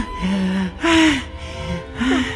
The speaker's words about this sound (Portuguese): O que foi que houve? Você tá tão ofegante?